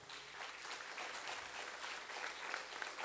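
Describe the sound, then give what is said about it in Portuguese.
Steady applause for the Lord during a sermon fills the whole few seconds, a dense, even wash of many hands clapping at moderate loudness with no voices standing out. “Aplaude ele, ele está aqui.”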